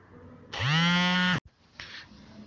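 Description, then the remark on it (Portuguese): A dentist tests his dental equipment: it switches on with a loud, steady electric buzz that holds for just under a second, then cuts off abruptly, followed by a fainter, brief rustle. “Tem um, um dentista, que ele está sentado aqui comigo e ele está testando os, os equipamentos dele.”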